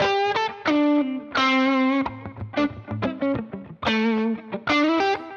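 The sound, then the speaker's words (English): An electric guitar played through a Timmy overdrive pedal, loud and gritty, alternating ringing held chords with a burst of short, choppy notes in the middle, with no talking. “If I was like really playing, and then the Timmy would be like my one more.”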